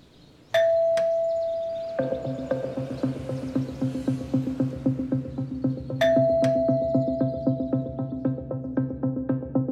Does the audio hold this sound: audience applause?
no